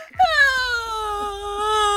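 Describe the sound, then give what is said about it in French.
A single long, loud wail rises sharply, then holds for about two seconds while sliding slowly down in pitch. It sounds strained and moaning, with no other sounds around it. “Un long beuglement, à peine humain, s'éleva dans son dos.”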